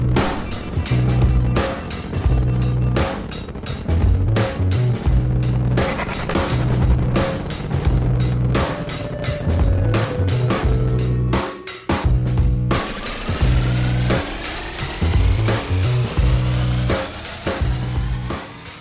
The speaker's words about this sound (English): Ignition sequence start. Six, five, four, three, two, one, zero. All engine running. Liftoff. We have a liftoff.